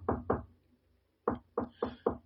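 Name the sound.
knocking on a door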